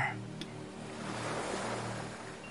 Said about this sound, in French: Ou peut-être sur une plage, à écouter la mer et les vagues